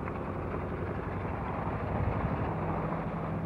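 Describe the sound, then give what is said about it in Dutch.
A sailboat's small outboard motor drones steadily as the boat motors into a harbour, a constant low hum with a rough mechanical rattle and no pauses or changes in pace, with no voices. “je wel dan gaat de motor aan en dan varen we op de motor de haven binnen.”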